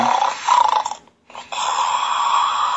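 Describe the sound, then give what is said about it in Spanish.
A loud snore: a long raspy breath, a brief silent pause, then another drawn-out rattling breath that fills the rest of the moment. No one speaks. “Ándale, güey, así como tú, que estabas dormido, pendejo, roncando toda eh, se te está acabando el tiempo.”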